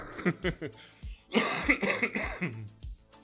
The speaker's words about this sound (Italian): Scusate ragazzi, c'è ancora un po' di tosse che sono stato male due mesi fa. Però c'è ancora un po' di tosse.